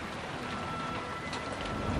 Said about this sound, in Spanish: Al salir, la lluvia y el viento volvieron a castigarlos.